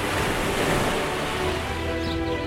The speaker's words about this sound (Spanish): Cierra los ojos e imagina el agua salada rozando tu piel en una playa kilométrica.